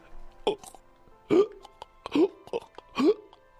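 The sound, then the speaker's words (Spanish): A voice imitates a dog retching before vomiting: four loud, rhythmic gagging heaves, each a sharp guttural burst, spaced almost evenly with brief quiet gaps and small clicks between them. “una arcada, que se le conoce una arcada, es que alguien va a vomitar.”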